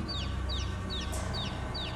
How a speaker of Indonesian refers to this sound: Setelah beberapa langkah berjalan, samar-samar aku mendengar suara anak ayam. Aku terus berjalan dan suaranya semakin keras. Sepertinya suara anak ayam itu berasal dari belakangku.